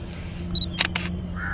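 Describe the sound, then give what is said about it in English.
A camera shutter fires twice in quick succession as a picture is taken, two sharp mechanical clicks over a low steady background hum, with a faint high electronic beep just before. “Come on, take a picture for me.”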